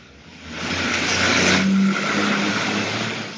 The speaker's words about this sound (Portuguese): Mas peraí que o caminhão de lixo tá passando aqui.